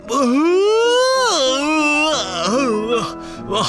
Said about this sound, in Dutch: gaapt er iemand dwars door de muziek. de dierenboos. Maar eh, de gaap, die komt uit de mond van ….